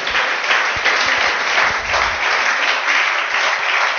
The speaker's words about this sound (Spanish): Amén. Dar un aplauso al Señor fuerte. Gloria a Dios.